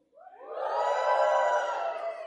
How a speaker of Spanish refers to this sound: ¿Cuántos acá son padres? A ver, un fuerte grito de júbilo.